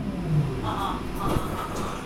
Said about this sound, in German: Und darum bin ich ins Tram gestiegen.